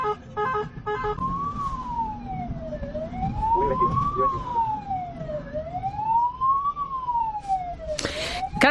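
An ambulance siren wails in slow, steady rising and falling sweeps, loud over low traffic rumble, growing slightly louder toward the end as if approaching.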